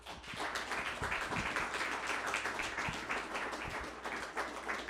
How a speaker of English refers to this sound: Everyone, give a round of applause for Anna.